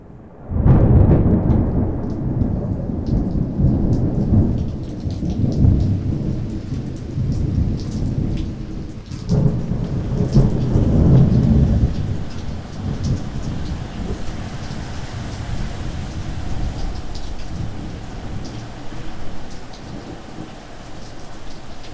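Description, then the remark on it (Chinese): Heavy rain pours in a dense, steady hiss while deep thunder rolls and rumbles through the first half, then the downpour carries on alone at an even, loud level. “斗大的雨滴慢慢落下，而越晚，雨势越大，而风也不断推着窗户似的，发出呼呼的声音。”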